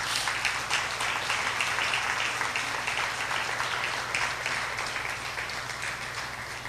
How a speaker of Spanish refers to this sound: ¿Le puede dar un aplauso al Rey de Reyes?